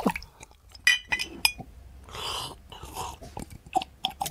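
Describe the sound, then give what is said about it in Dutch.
Glasses clink sharply a few times, then jenever is poured briefly into a glass, followed by more light clinks and taps, with no one speaking. “Nou, neem even een glas jenever.”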